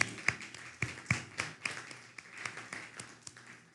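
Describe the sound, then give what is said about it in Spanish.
Scattered applause from a small group, with sharp, irregular claps over a soft steady patter. Fairly quiet, and no one speaks. “Fuerte aplauso.”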